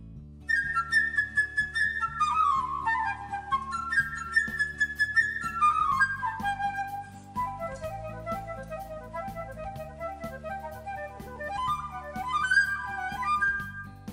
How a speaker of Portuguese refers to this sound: Cada personagem desse conto será representado por um instrumento da orquestra. Por exemplo, o passarinho é a flauta. Assim.